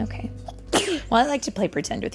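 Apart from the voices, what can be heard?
child sneezing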